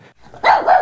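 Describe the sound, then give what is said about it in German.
A dog barks loudly, a quick double bark with a short rough onset, heard on its own with no talking. “Da! Ah! Da ist der Max!”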